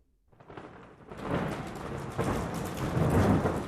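Heavy rain pours in a steady, dense hiss during a terrible night-time storm in a village in Southern California, while deep rolls of thunder swell and rumble beneath it, building louder toward the end. No voices are present.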